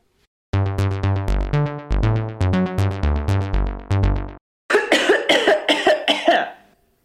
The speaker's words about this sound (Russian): Что это за символический кашель? Ты опять делаешь, даешь мне понять, что я тебя перебил?